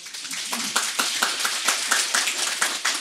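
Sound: audience clapping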